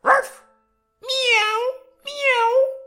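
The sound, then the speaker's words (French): A voice imitates a dog with one short, gruff bark, then after a pause gives two drawn-out, cat-like meows, all fairly loud. “Ruff,”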